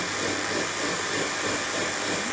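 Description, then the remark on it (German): A kitchen blender whirs steadily, mixing soaked oat flakes with water: a loud, even, hissing motor roar that holds constant throughout, with no voices. “So, jetzt äh, werden hier diese Flocken, die schon so aufgeweicht sind, mit dem Wasser gut durchgequirlt.”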